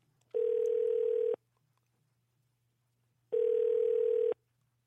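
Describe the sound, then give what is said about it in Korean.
A telephone ringback tone sounds twice while a phone call is placed to a listener, each steady buzzing tone lasting about a second with a two-second pause between, clear with no talking over it. “여기까지만 듣고 한번 전화 연결해 보겠습니다.”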